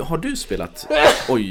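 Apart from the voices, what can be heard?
sneeze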